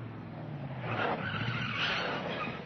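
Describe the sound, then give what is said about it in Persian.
A car pulls up with a loud, drawn-out tire skid, the squealing rubber swelling over a low engine rumble for a few seconds before easing off, with no voices, on a hot day. “داشتم ملافه های شسته رو پهن می کردم یه دفعه صدای ماشین اومد”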